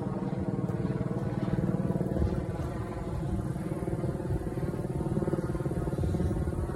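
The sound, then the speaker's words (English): A military aircraft from the NAS Jax area flies a flight pattern over the St. Johns River, droning steadily for the whole stretch, a loud, rough engine roar with a low buzzing rumble that holds at an even level, with no voices over it. “You may hear helicopters above the NSA jacks is down the road on US 17, so sometimes we get some um, flight patterns from NAS Jax area, particularly over the St. Johns River.”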